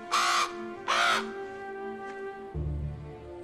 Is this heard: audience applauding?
no